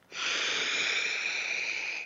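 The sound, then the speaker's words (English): A single deep, fairly loud inhale through the nose during a guided breathing exercise, a steady airy rush lasting about two seconds before cutting off. No one speaks. “So let's take a breath.”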